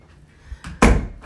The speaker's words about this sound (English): This fucking dryer is driving me nuts, y'all. Hold on, let me close this fucking door.